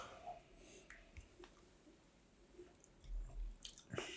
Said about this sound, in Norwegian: Ok, for å gi den en sjanse, da, så skal den få tre dråper med vann.